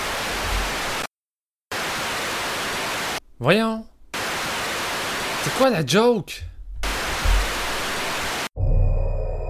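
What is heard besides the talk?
television static noise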